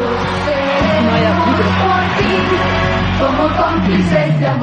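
An audience at a live radio show applauds and cheers, with loud, continuous whoops and shouts filling the whole stretch at an even, energetic level and no pause.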